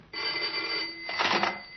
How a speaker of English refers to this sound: Patiently, grimly, the two men went on waiting. Once again, the telephone.